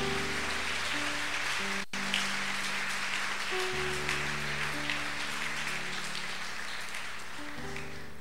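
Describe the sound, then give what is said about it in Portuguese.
An audience applauds loudly and continuously for several seconds, a dense wash of clapping given as an applause to the Lord, while sustained organ-like chords play underneath. “Dê um aplauso bem forte ao Senhor.”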